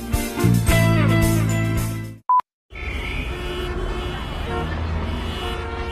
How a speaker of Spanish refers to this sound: Qué lindo sería un día sin el ruido del tránsito